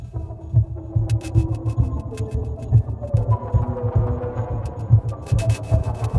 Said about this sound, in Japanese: いやこれは本当電子音楽だな、うん、なんかテクノとかいう言葉ではもったいないぐらいの、うんうん、もうちょっと広いそうですねなんか曲を聴いてるっていうよりはやっぱ没入して体感してる感じになりますね